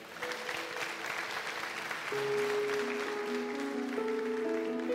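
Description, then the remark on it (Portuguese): An audience applauds steadily, a dense wash of clapping that holds loud throughout, while sustained organ or keyboard tones rise underneath about halfway through. “Você pode aplaudir o Senhor e dar um glória a Deus por isso?”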